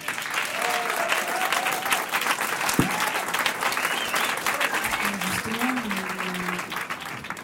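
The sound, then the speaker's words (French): Sustained applause from a masked, in-person audience at a live concert session, a dense steady clatter of many hands clapping throughout, with faint crowd voices and a few whistles mixed in. “Des corps sur la scène, des corps dans la salle. On les entend.”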